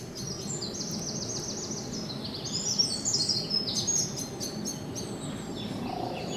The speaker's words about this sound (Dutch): Het is natuurlijk vooral Merel en Koolmees, maar wel heel leuk, want die gaan natuurlijk helemaal op het orgel nu.